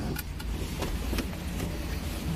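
A steady low rumble of a car engine idling continuously, with a few faint clicks and brief higher transients over the drone, even in loudness.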